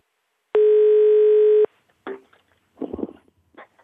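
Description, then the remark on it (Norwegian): A single steady telephone ringing tone sounds for about a second as a call is being placed, clear and loud, followed by a pause and then some muffled, indistinct noises on the line. “Jeg ringer til”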